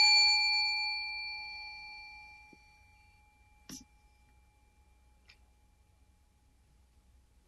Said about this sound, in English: It is a little bit like this bell we ring here sometimes, you know, which does that.